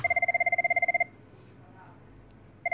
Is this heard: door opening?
no